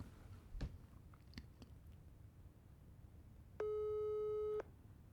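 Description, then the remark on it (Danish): A single one-second beep of a telephone ringback tone, steady and mid-pitched, heard over a speakerphone after a few soft clicks and handling noises, as an outgoing phone call is placed. “Den ringer.”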